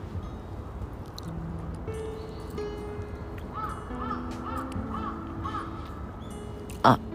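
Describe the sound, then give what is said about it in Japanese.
Crow caws, a few harsh calls repeating in the background over a steady outdoor hum, with one sharp louder burst near the end. “カラスの声すら自分の言ってる意見のように”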